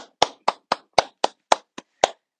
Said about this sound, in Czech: Prostě obyčejný zatleskání